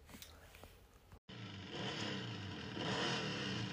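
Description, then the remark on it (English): A motorcycle engine revs loudly after a brief silent break, its roar building into a sustained, rising growl that fills the rest of the moment. “while riding a motorcycle, while doing wheelies and flips”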